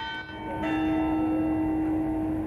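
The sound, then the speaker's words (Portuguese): A church clock bell rings out with a sustained, resonant tone, its long metallic hum and overtones lingering and blending together with no voices present. “há quem já tenha desistido, como é o caso de José Leite, que vive para a hora certa do relógio da igreja.”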